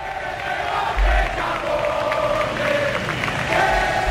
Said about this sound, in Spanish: Intensos los gritos y abuchos a Sánchez comenzaban en cuanto llegó a la plaza de Neptuno